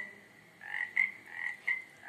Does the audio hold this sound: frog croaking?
yes